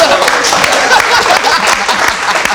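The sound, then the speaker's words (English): A dense wash of clapping from a small group, steady and fairly loud across the whole stretch with no clear individual claps standing out. “Now y'all can clap.”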